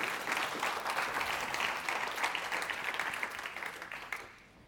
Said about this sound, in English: So, round of applause for our band, please, this morning for keeping going.